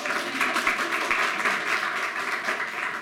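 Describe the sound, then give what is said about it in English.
Steady applause from an audience fills the space, a dense wash of many hands clapping at once, sustained and fairly loud throughout with no voices standing out. “Another round of applause for Jan, please.”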